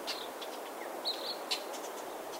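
Several short, high bird chirps ring out at irregular intervals over a steady hiss of outdoor background noise, fairly faint.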